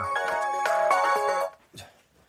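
A mobile phone ringtone plays a bright, melodic electronic tune with stacked tones for about a second and a half, then cuts off, leaving brief faint rustling.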